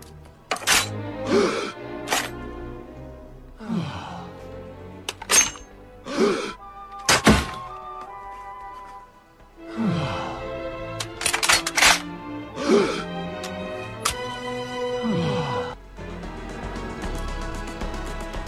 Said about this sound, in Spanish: ¿Qué es lo que pasa en este corte? Sale Putin y salen pues uno de los personajes y entonces saca una pistola que es la que se oye, ¿no? Como que la carga y todos se asustan y de repente es un mechero.